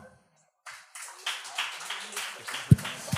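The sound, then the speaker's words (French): After a brief quiet moment, a scattered round of applause rises from audience members who have lost a grandmother and continues steadily, moderately loud, with one low thump near the end. “par applaudissement, le monde qui ont perdu une grand-mère.”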